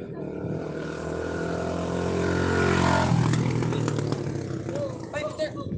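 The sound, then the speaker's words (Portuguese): A motorcycle ridden by a woman passes by, its engine droning louder and rising in pitch, then dropping sharply as it goes past midway. Faint voices can be heard toward the end. “Olha a motoqueira.”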